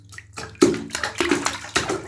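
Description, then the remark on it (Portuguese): Ocean water sloshes and splashes around a drifting boat in the middle of the ocean in irregular surges, with a few louder slaps against the hull breaking through a steady watery wash, and no one speaking. “perdido no barco, no meio do oceano.”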